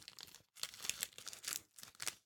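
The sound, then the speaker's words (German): Several crackly bursts of tearing as a piece of chicken is pulled apart, coming in uneven pulses with brief pauses between them. The sound is fairly quiet, and no one speaks. “Ich kämpfe noch mit dem Hähnchen.”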